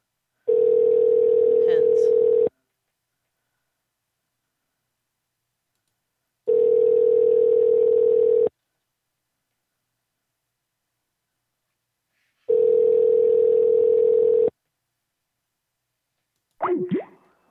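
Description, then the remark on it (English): A phone line rings out unanswered: three steady, mid-pitched ringback tones, each about two seconds long, separated by longer silences, followed by a brief burst of sound at the end. “Okay, no answer.”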